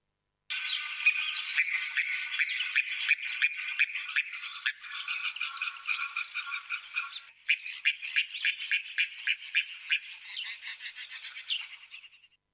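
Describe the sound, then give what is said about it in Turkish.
A darter (snakebird), a species now extinct in Turkey, gives a dry, rattling chatter that runs nearly nonstop for about twelve seconds, rapid clicking pulses coming in bursts with brief breaks, clear with no voices. “İşte Türkiye'de artık nesli tükenen yılan boyunun sesi şöyle.”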